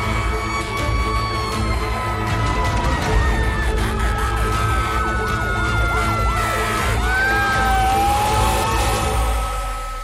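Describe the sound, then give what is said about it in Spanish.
Several emergency vehicle sirens wail at once, their rising and falling tones overlapping loudly and steadily over a constant rumble of engine and traffic noise, with no one speaking. “Se escuchaban las sirenas, mi corazón palpitaba, emocionaba, no sabía qué iba a hacer, no sabía qué estaba haciendo arriba de un camión.”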